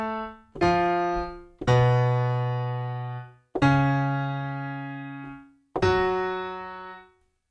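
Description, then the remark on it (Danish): A dramatic, dissonant opera opening theme sounded as five heavy, sharply struck chords, each ringing out loudly and slowly fading before the next, with no voices. “Allerede indledningen sætter et dramatisk, nærmest dissonerende tema an.”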